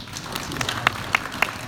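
Audience applause at a conference, thanking its first speaker: a scattering of sharp, irregular hand claps, fairly sparse rather than a dense roar, with a few louder claps standing out above a soft background hiss.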